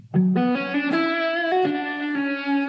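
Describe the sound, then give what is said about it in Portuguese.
An overdriven electric guitar plays a short melodic phrase of sustained, gritty notes, with delay and reverb effects trailing behind. It is loud, with no one talking. “Faz o som aí. Bota um delay, um reverb, um drivezinho e, e tá, tá aquele pau.”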